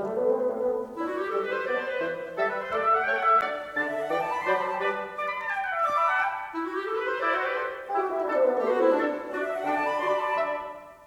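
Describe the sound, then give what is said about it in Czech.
An orchestral passage from a symphony in which a short melodic motif played by one instrument is repeated and imitated by another, in rising and falling lines, played steadily and fairly loud with no talking. “To znamená, že jeden nástroj zahraje nějaký motiv a po něm ho opakuje jiný a ono by se to mělo nějak podobat.”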